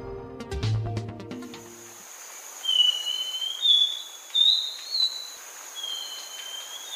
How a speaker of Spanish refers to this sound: Estamos escuchando al saltarín turdino, en grabaciones captadas en Nariño y Boyacá, un pájaro de unos 17 centímetros de alto al que le gusta vivir en matorrales altos y en la parte inferior de los bosques húmedos.